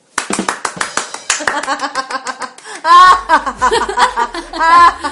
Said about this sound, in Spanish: Aplausos. Aplausos.